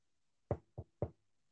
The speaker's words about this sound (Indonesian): Langsung kita ketok aja ya.